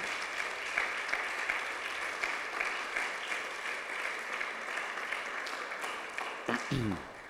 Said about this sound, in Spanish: Désele fuerte ese aplauso al Señor.